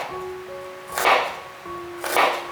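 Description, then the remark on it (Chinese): A knife cutting ten grams of ginger into slices on a cutting board: two crisp chopping strokes about a second apart, each a brief scraping thud, with a faint steady tone humming underneath. “准备十克的姜，切成姜片”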